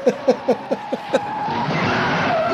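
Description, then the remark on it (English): A quick run of six sharp, evenly spaced gunshots fired at a driver gives way to a car's roaring engine and long, high tire squeals as the car drives around a police station parking lot, loud, with no talking. “They're shooting at him, and he's just driving around in this uh, parking lot forever.”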